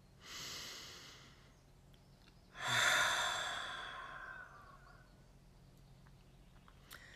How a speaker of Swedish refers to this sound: Utan just nu så är du här med mig och bara andas långa djupa andetag.